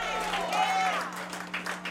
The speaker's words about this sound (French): Je voudrais quelques applaudissements pour mes camarades de l'orchestre.